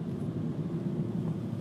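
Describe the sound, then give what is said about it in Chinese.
A hybrid car's electric motor gives a steady, low humming whine with a constant drone and no talk, holding an even level for the whole short stretch, heard while driving with the car's air conditioning switched off. “像现在这空调关了，感觉能听到这个，只能听到电流声哈。”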